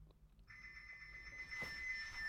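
A telephone starts ringing after a brief pause, a steady, continuous electronic trill that sounds fairly soft, with a short muffled knock partway through.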